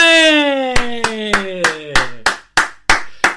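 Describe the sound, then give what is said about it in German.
A long falling voice-like tone gives way to a run of about ten sharp, evenly spaced hand claps, fairly loud, with the gliding tone fading under the first few; applause for a teacher, following a Laola wave. “Also, alle machen eine riesige Laola-Welle, gefolgt von einem Applaus für eure Lehrerin.”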